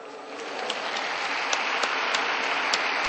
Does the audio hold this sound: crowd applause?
yes